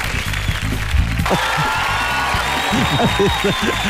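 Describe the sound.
An audience breaks into steady, continuous applause for the Rock and Pop radio team and staff, a dense hiss of clapping that swells after a moment and carries on to the end, with voices talking and calling out underneath.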